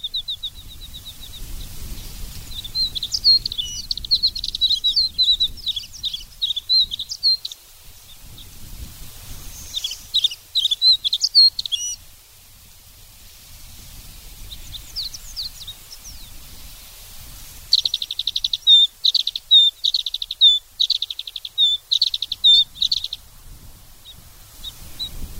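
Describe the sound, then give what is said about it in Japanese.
An alpine accentor sings on the peaks of Mount Zao in several bursts of high, rapid warbling trills separated by brief pauses, clear, over a steady low rumble of wind blowing across the peaks. “岩ひばりのさえずりが蔵王の峰を渡る風に吹き消されるように流れていきますそれでもどこまでも聞こえそうな力強さを持ったさえずりでした”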